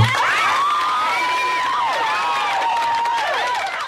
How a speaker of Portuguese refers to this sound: Deixa, deixa até espaço para ele colocar palmas aqui agora para é, ele.